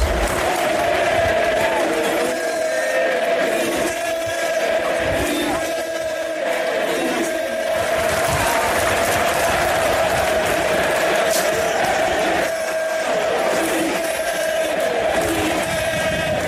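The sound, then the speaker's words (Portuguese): A large crowd of River Plate football fans in a stadium sings a chant about Riquelme together in 2012, a loud, dense wall of voices holding a steady, droning melody throughout, with no pauses and no single voice standing out. “vamos escutar aí um trechinho da torcida do River cantando o Riquelme pro Porquinho do …”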